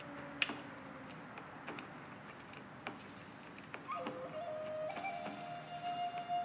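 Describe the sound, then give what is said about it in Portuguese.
A fire crackles steadily, with irregular sharp pops and snaps over a soft continuous hiss, and a faint tonal whine rising briefly toward the end. “E à sua frente essa fogueira crepita.”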